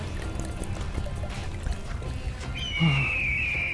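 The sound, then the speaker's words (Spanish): Water pours steadily into a container, a splashy gurgle whose pitch climbs toward the end as the vessel fills. No one speaks. “¡Atención, viajeros! ¡Hora feliz de agua fresquita! ¡Hay para todos!”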